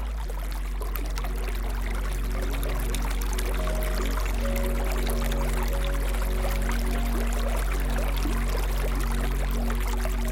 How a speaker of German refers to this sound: Über ihre Hänge schlängeln sich Bäche und ihr sanftes Glucksen ist wie ein Wiegenlied für die Täler weit unter dir.